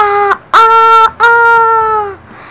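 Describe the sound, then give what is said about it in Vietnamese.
A rooster crows loudly, one call in three parts: two short rising bursts and then a long, drawn-out final note. There is no talking. “Sáng hôm sau, sau khi dõng dạc cất tiếng gáy O ốc”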